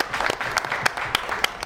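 An audience applauds steadily, a dense wash of many hands clapping with a few sharper, louder claps standing out above the rest, sustained throughout the short moment without any voices.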